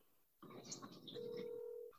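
A phone call being placed: a brief burst of electronic dialing sounds, then a steady, fairly loud single tone that holds for nearly a second, heard close up with faint background murmur.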